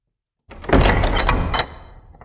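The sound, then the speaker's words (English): A single door closes, with a loud rolling rumble for about a second before it settles with a fainter knock and fades. No one speaks. “But until then, the doors to the house of Mario, they're closed.”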